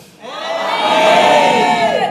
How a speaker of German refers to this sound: And everybody shouted. Und alle rufen. I didn't say whisper, I said shout it. Ich habe nicht gesagt, kuschele, sondern schreit es, ruft es.